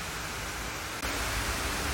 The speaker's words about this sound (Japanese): ちょっと今公園で撮ってて あの噴水が近くにあって急に噴水が大きくなって水が水しぶきがもしかしたら声が入ってないかな大丈夫ですか